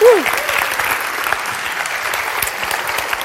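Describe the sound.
Sustained applause from an audience, a dense, steady patter of many hands clapping that fills the whole stretch, with a brief voice trailing off at the very start.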